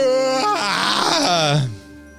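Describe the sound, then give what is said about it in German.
A loud, drawn-out yawn from a single person, voiced and stretching for nearly two seconds, its pitch swelling upward before sliding down and trailing off into quiet. “Kann wir nicht mal gähnen?”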